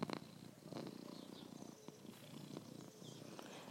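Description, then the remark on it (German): A domestic cat purrs steadily into the microphone, a continuous low rumbling with a soft rhythmic pulse, loud and intimate with no one talking. “Vielleicht würde eine unserer Katzen, die Schnurrtier, in den Hörer.”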